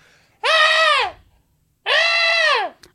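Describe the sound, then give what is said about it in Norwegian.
A voice imitates a roe deer's death scream: two loud, drawn-out shrieks, each bending downward in pitch at the end, separated by a short silence. “forferdelige liksom, dødsskrik, da.”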